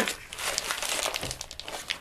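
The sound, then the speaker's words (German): Continuous crinkling of gift wrapping paper from a large roll bought at DM, a dense run of crackly rustles with sharper crisp snaps scattered throughout, moderately loud and steady for about two seconds, no voices. “Ich habe mir dieses Jahr eine fette Rolle Geschichte hier gekauft.”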